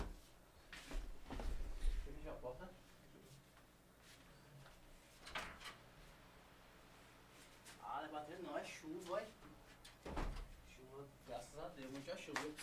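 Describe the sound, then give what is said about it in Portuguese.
A door bangs a few times at irregular intervals, sharp, fairly loud thuds, with a person talking in the gaps between the knocks. “O que é isso? Tá batendo aí?”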